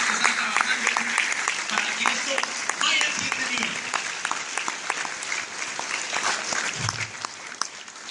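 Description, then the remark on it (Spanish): Sustained audience applause for all the gold and higher ranks, a dense wash of many hands clapping steadily for several seconds, with faint voices and cheers mixed underneath. “Así que quiero que le demos todo su fuerte aplauso a todos los rangos oros y superiores”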